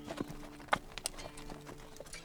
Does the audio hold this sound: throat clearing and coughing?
no